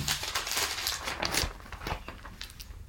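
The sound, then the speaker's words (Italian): Crisp rustling and crinkling of newspaper pages as they are flipped to page 8, several bursts of crackly noise over about three seconds with no talking. “Esattamente dal Corriere della Sera andiamo a pagina”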